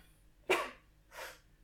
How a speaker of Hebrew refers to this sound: התקף אלרגיה. לבריאות.